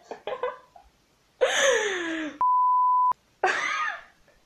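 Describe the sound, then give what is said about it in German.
A single steady censor bleep over swearing, flat and sharp, lasts under a second and cuts off abruptly, sandwiched between loud strained vocal outbursts like groans or exclamations. “Hey, du piepst es doch eh an, das hört am Ende niemand.”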